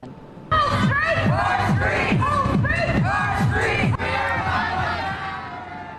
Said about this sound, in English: Several popping up today here in Los Angeles, including one tonight in Hollywood. Just take a listen. Yes, this is in Los Angeles, on the opposite side of the country. This is where the protest is happening.